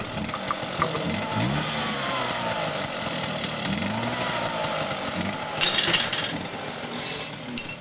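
Motorcycles roar past, a steady loud engine drone with revving pitch sweeps that swells again toward the end, with no voices.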